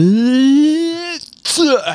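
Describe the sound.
A sneeze: a long, rising, voiced intake builds for about a second, then a brief pause before a sharp, noisy burst and a short vocal tail.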